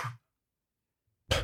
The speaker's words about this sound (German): Das, das ist doch, wie laut ich niese, Mensch. Ja, das war der laute. Und damit sind alle im Umkreis von 300 Metern wach.